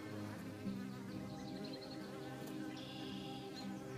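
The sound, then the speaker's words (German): Steady, continuous buzzing of bees and other insects in a colorful spring garden, a dense droning hum with shifting pitches as individual insects pass, with no voices. “Insekten und Bienen freuen sich über den frühlingshaften Gruß genauso sehr wie wir. Überall summt und brummt es.”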